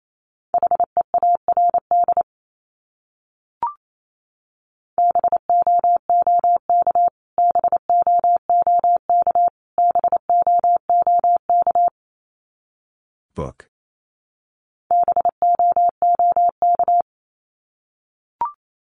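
Morse code beeps at one steady mid pitch, keyed at 28 words per minute in short and long pulses, sending one of the 500 most common words repeated, in several bursts separated by pauses, with a few faint clicks between them and no voices.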